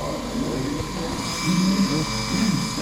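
A man shaves with an electric razor: a steady electric buzz runs throughout at moderate volume, with a constant high whine and low hum, its tone dipping slightly as the razor presses against skin.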